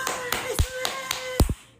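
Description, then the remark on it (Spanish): A quick run of about six sharp, fairly loud hand claps landing in a rapid, slightly uneven rhythm with a faint steady tone underneath. “Están los de nivel aplausos ruidosos. ¡Wow! ¿Verdad? Diferente. O sea, rapidito, duro.”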